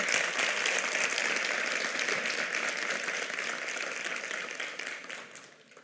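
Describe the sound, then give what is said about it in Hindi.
A large audience claps steadily in a dense, sustained burst of applause that holds for several seconds before tapering off at the end. No voices stand out. “तुम क्यों तालियां बजा रहे हो तुम तो थे भी नहीं वहां”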